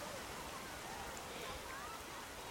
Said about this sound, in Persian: صدای موجه ساحل کم کم توی گوشم پیچید و رفت از وسط یک خواب رد شد. فهمیدم که دیگه کسی کنارم توی ساحل نیست و صدای دریا شبیه به صدای دست زدن مردا و زنای کافه شده.